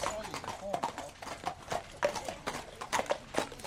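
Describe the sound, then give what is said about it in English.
Horses' hooves clop steadily across hard ground as several horses walk in from the fields at Arthur Moore's stables on a snowy, cold February morning, the uneven clip-clop rhythm distinct, with a voice speaking faintly underneath. “Horses are coming in from the fields the warm breath from their nostrils visible in the cold air.”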